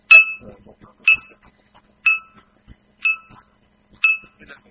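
A bright bell dings five times at a steady pace, about one strike per second, each ring sharp and high with a short metallic decay, with faint murmurs in the gaps.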